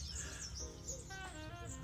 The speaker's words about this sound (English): Rough Sunday's coming to you from um, a campsite, as you can hear from the birds in the background, on the garden route of South Africa.